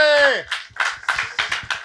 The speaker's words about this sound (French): Bah écoutez, président, on vous salue. On peut l'applaudir, hein, franchement.